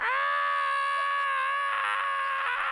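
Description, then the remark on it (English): A voice imitates a secretary's scream heard in an office: one long, shrill, sustained shriek that holds steady for nearly three seconds, loud, with no other talk around it. “So my secretary is screaming,”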